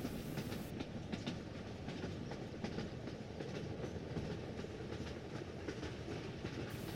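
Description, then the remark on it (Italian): Steady rumble from inside a moving train carriage travelling back to Trento, with a constant low roar and faint rhythmic clatter of wheels over the tracks, continuous throughout with no voices. “avevano venduto tutto anni prima e così sono sul treno, di nuovo, di ritorno a Trento”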